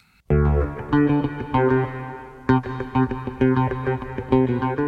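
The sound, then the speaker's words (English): A bass guitar plays a short melodic phrase of plucked notes, drenched in reverb so the tone sounds washed out and set back at a distance, with no voices. “So you hear it with the reverb sounding kind of farther away.”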